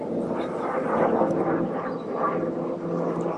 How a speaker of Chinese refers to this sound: 等一下，我想等这，因为我头上有个直升机，我等这个直升机过去以后 可以， 这个噪音有点大。